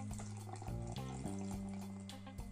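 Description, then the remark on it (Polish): Juice pours steadily into a glass for a couple of seconds, a continuous splashing gurgle with a shifting, ringing tone as the glass fills. No one speaks over it. “Naleję sobie soczku.”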